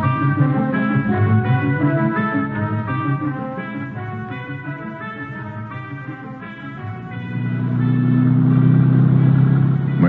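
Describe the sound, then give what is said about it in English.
A Volkswagen car's engine hums steadily as it drives through town following car tracks, its low rumble swelling louder near the end as it speeds up. No one speaks. “Volkswagen, I head out in his auto.”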